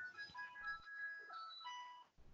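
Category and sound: vehicle, ice cream truck jingle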